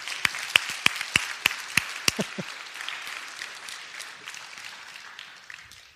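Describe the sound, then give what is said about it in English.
An audience breaks into applause for a man whose shot hit the middle of the target, with a handful of sharp, evenly spaced claps standing out at the start over a dense wash of clapping that gradually thins and fades over several seconds. “Give Corey a round of applause.”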